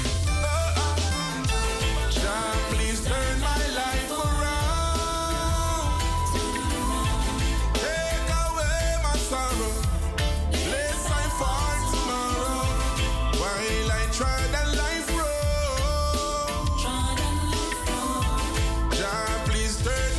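A full, steady music track plays for the whole stretch, with a deep bass groove and layered melodic lines riding a constant beat, loud with no voices.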